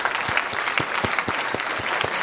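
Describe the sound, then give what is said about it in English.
A crowd claps steadily in a big round of applause for the heroes the speaker has listed, the dense patter of many hands filling the whole stretch at an even, sustained loudness with no voices over it. “I want you to have a big applaud for all the heroes that I have listed above.”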